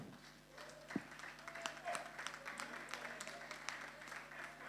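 Audience applause: a steady patter of many hands clapping at once, a dense irregular rattle that holds level throughout with no voices rising above it.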